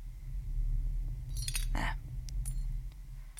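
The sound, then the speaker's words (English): Small pieces of glass clink and scrape together in a short cluster, followed by a few lighter, scattered ticks over a low, steady background hum. “I don't think you've broken any fingers, but there's glass in your knuckle.”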